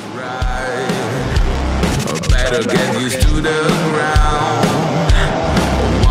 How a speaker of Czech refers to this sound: já bych za normální okolnosti, kdybych slyšel takovýhle zvuk kytar, tak už bych řval, že je to takový trošku jako pod dekou a takový jako málo toho top endu, ale tady k tomu stylu té hudby to strašně sedí.